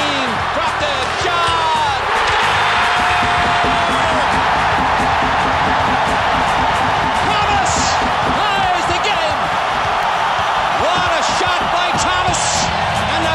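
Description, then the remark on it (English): A loud, sustained crowd roar at a basketball game, dense and unbroken for the whole stretch, with whoops, squeaks and sharp thuds of a bouncing basketball and slams poking through the noise. “crowd is roaring.”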